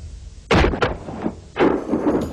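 Two loud shotgun blasts from a Benelli, about a second apart, each a sharp boom with a short rumbling tail, and no voices.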